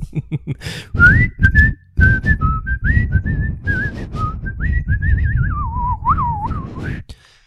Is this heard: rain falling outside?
no